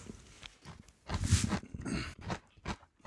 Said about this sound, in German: Also alle kauen jetzt um mich herum.